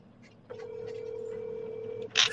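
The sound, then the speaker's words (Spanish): A single steady electronic ringback tone, the sound of an outgoing phone call ringing, holds for about a second and a half. It is fairly clear, followed by a brief burst of noise. “¿Se escucha el timbre?”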